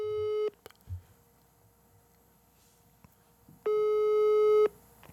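Telephone ringback tone heard while a phone call is placed and connects: a steady, buzzy electronic beep sounds briefly, falls silent for about three seconds, then returns for a longer second burst. Clear, with no voices.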